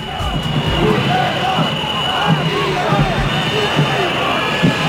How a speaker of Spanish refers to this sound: Ese era el, este era el momento de los abucheos.